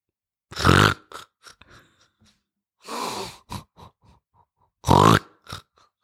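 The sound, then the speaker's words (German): A voice imitates snoring: three loud, rasping snorts about two seconds apart, with faint clicks and short breathy noises in the gaps. No talking. “wenn du einen Partner hast, der schnarcht.”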